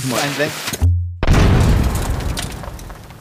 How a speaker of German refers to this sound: Können wir äh, jetzt Explosionsgeräusche, so Kopfexplosionen, ja,